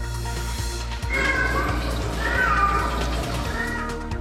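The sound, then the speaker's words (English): A cat rescued from the water in the Okanagan meows loudly in drawn-out, wavering cries, two long yowls back to back, over a steady low rumbling background. “The cat that floated back, the remarkable water rescue of a frazzled feline in the Okanagan.”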